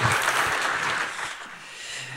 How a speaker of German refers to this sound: das ist ein Applaus.